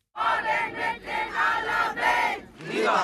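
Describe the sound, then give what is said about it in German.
A large crowd at a street march in Berlin shouts against Israel in loud, rhythmic bursts, about four surging chants in a few seconds, dense with many voices blending together outdoors. “Statt Friedensbotschaften hört man aus der Menge Hetze gegen Israel und Nazi-Vergleiche.”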